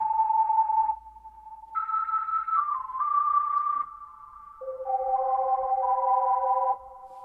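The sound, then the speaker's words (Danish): A breathy, flute-like sampled keyboard tone with added echo and a Leslie effect, as once used on Hammond organs, plays a slow melody of held notes that overlap and linger, with a gentle swirling wobble. Fairly loud, with no voices. “så har jeg kultiveret med, med min smag, det vil sige, jeg har lagt noget ekko på, og så har jeg lagt øh, det, man i gamle dage brugte på et hammondov, som hedder en Leslie, som giver den effekt af den, og så lyder sådan her i helt hele.”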